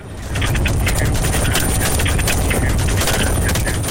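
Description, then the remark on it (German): Rapid bursts of gunfire from hunters in a helicopter firing on a group of wild boar in Texas crackle over the steady low roar and thump of the helicopter, the shots coming in quick irregular volleys throughout; no one speaks. “Doch dann sind die Jäger über einer Rotte und bekommen das Signal, Mal feuerfrei.”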